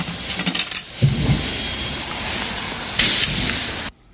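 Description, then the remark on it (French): A small piece of ice falls and clinks lightly a few times, with sharp little ticks early on over a steady hissing, crackling background that cuts off abruptly at the end. “Ça, ici, on entend la petite glace qui tombe.”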